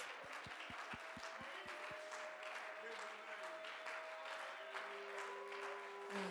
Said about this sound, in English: Somebody clap your hands and magnify the name of Jesus Christ.